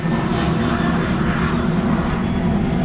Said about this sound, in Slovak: Počkáme, kým preletí lietadlo. Ste pri letisku.